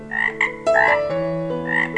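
Loud frog croaking repeats in quick bursts over a steady, droning tonal backdrop, with no voices present.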